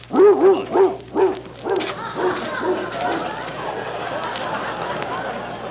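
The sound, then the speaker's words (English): A dog barks repeatedly, several sharp yapping barks in quick succession at the start, then fading into excited yips and whimpers over a busy background. “Quite a dog.”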